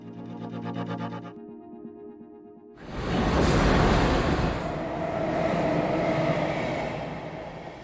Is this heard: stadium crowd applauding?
no